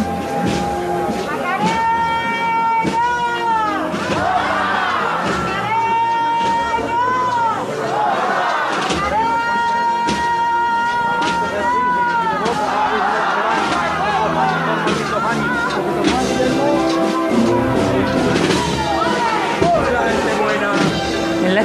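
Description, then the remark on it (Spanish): A large crowd shouts and cheers without pause, many voices overlapping into a loud, dense roar with rising and falling cries breaking through now and then. “Estos gritos, estos guapas, estos vítores, estas lágrimas.”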